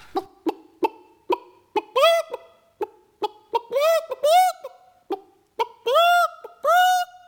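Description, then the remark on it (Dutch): A chicken cackles frantically for food, quick sharp clucks building into loud, drawn-out rising squawks, the pattern repeating several times with no other sounds around it. “Als Piet Jan beneden is, hoort hij een hysterisch kakelende kip kakelen om eten.”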